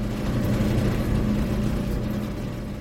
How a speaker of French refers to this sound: On rentre dans un premier sas, comme ça ça fait beaucoup de bruit, hein. on, entend, on entend la soufflerie.